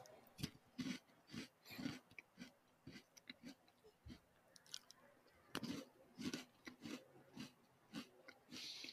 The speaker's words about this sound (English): Can you hear me chewing super loudly? It's not it's not too loud, but yeah, you can definitely hear it.